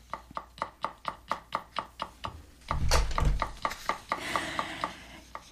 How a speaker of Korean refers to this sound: 그 다음날 눈을 떠보니 내가 임시로 묵고 있는 창고가 아니고 따뜻한 방 안이었고 문 밖에서는 도마 소리가 들렸습니다.